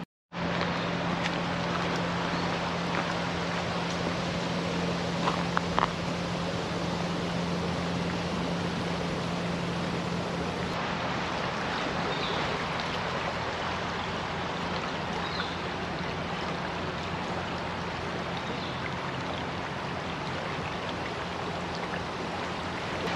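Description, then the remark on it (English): Steady, continuous rush of river water flowing along a muddy riverbank in the shade, with a faint low hum underneath and no voices. “It is super muddy right at the river's edge. I would hate to fall in this river, so I am not going to go any closer, but certainly beautiful and certainly buggy.”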